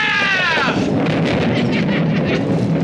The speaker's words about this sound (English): But first, some rain and thunder!